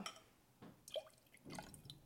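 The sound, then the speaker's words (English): Italian sweet vermouth di Torino trickles into a mixing pitcher in a few short, quiet splashes and drips, with no voices. “Look, I've already done like a way heavier pour.”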